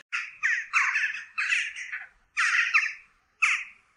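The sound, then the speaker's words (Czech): A person imitates a jackdaw with about six harsh, raspy squawks in quick, uneven bursts, fairly loud, with a short pause before the last few. “Já jsem pták, takže pípání je v pořádku, jsem kavka.”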